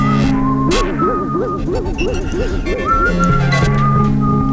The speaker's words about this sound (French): Les sifflets pour se relaxer. Une gigue. Enfin, quelques notes. Les sifflets en boucle.